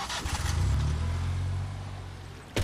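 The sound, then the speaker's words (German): A car drives along the rough, potholed Stippachweg road near Sinn, with a steady low engine rumble and road noise, ending in a sharp jolt as the wheels hit a bump. “Die Fahrt war holprig, viele Schlaglöcher sind in der Straße.”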